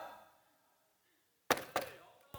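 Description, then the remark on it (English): Three sharp knocks on a hard surface after a short quiet stretch: two in quick succession, then a brief pause and a third. They're fairly loud, with no talking over them. “So what's your part? Knock.”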